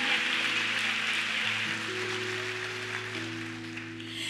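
Steady, dense audience applause at Lagoinha church, a continuous crackle of many hands clapping over a soft sustained keyboard chord that shifts pitch partway through. No one speaks.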